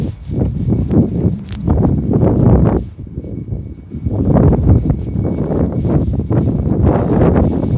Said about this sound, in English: You can probably hear the wind picking up now.